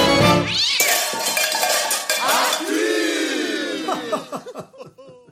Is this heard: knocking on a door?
no